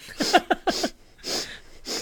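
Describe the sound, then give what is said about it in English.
A voice imitates the repeated nasal sniffing of people in China: several short snorting sniffs in quick succession, followed by two longer, breathy intakes through the nose. “But the thing that I would miss the least is the sniffing.”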